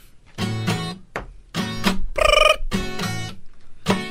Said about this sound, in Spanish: Suena un teléfono en la suegra telefonista.